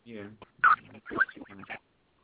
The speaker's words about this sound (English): Sorry about that. Your phone sounded like crap. Sometimes it's better to have the dead air than the crap.